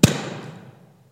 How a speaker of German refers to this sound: Aus dem Ballon ist ein kleines Kreuz gefallen mit einem grünen Zettel. Ich liebe ja so diese Metaphern. Ein rosaroter Ballon zerplatzt und was Grünes bleibt übrig, die Farbe der Hoffnung.